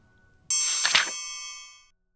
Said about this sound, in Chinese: 大朋友小朋友，如果你们搭配着书看，那么听到的声音就代表要翻页喽。